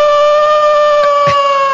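A wolf howl sound effect: one loud, sustained, tonal wail that holds a nearly steady pitch for the whole two seconds, with no talking over it.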